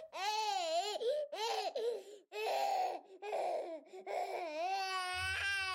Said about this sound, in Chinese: 这个小婴儿叫做…，他从小就很爱哭